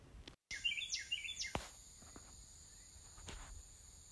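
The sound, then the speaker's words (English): A Carolina Wren sings a quick series of three or four loud, repeated chirping phrases, followed by a few scattered clicks and soft rustling against a quiet outdoor background. “That sounds like bird noises. It's Carolina Wren.”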